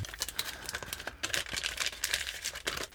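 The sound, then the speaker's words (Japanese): Steady crinkling and rustling of paper being creased and folded into origami in a very complex process, with small sharp crackles scattered through the three seconds and no voices. “目の前でなんか非常に複雑な工程で折り紙を折ってくださってるんですけど音も聞こえてると思うんですが”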